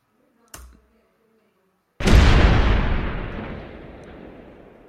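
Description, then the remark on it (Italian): A single loud cannon shot sound effect booms out after a brief click, its heavy blast rolling and slowly decaying over several seconds, with no voices present. “abbiamo dato un colpo di cannone in onore di Roma, perché probabilmente saluterà, se non saluterà adesso lo farà nei prossimi mesi probabilmente.”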